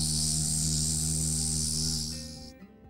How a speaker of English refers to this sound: he heard a terribly loud buzzing sound. Bzzz.